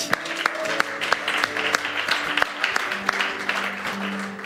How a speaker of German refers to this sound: Hey, hey, hey, so schön, dass ihr da seid an diesem sonnigen Sonntagmorgen und ganz besonders, wenn du das erste Mal da bist, der Applaus ist genau für dich.